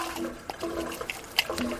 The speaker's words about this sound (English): The first thing I'm going to do is I'm going to prove to you by by emptying some of this solution into a cup. I'm going to prove to you that there's chlorine in it.